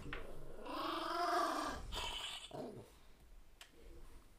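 A dog growls in a drawn-out, rising-and-falling rumble, then breaks into a couple of shorter, rougher growls before trailing off.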